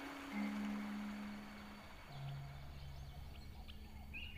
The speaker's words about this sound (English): Bird song carried on the breeze of a new morning.